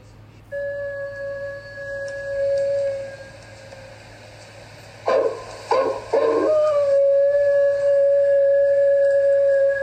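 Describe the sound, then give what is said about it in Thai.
A hungry wolf howls, coming to eat sheep: a long, steady howl holding a high, clear pitch, interrupted around the middle by a few short, rough yelping bursts before the sustained howl resumes, with no talking. “แล้ววันหนึ่ง มีหมาป่าหิวโซตัวหนึ่ง เข้ามากินแกะ”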